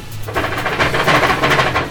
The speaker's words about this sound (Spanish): tenemos un invitadazo eh, al cual pido redoble de tambores,